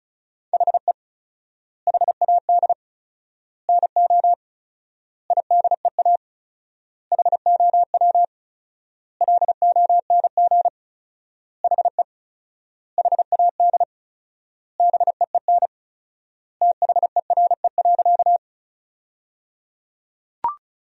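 Rapid Morse code practice tones at 35 words per minute with 4x word spacing, sending sentences from the top 300 words: a steady mid-pitched beep keyed into quick dots and dashes, in short word bursts separated by brief gaps of silence, ending with a soft click.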